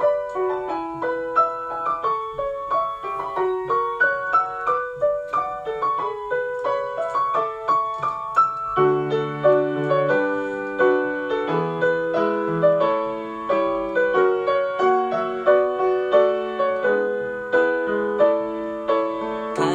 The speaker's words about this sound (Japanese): まあ僕が作った曲の中で一番僕が今年一番自信がある曲っていうのをえー、流します。えー、っと、聞いてください。